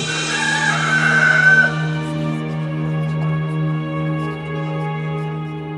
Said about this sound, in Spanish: En ese mismo momento, el gallo cantó.